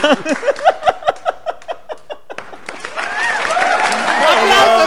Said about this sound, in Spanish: ¡Aplausos, chinga!